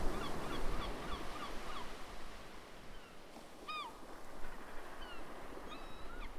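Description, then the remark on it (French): Several birds call over a steady wash of surf on a beach, with honking, goose-like cries and brief chirping notes scattered throughout. No one speaks. “écoute bien les sons qui t'entourent. Est-ce que tu entends les oiseaux?”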